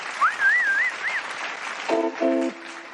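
A crowd applauds steadily for about three seconds, with a wavering whistle rising over the clapping early on and a couple of short tonal notes near the end.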